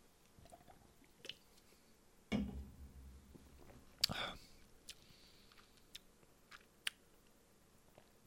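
Quiet mouth sounds of someone taking a sip of a drink: a wet slurp, then a louder swallow, with small clicks and lip smacks scattered around them.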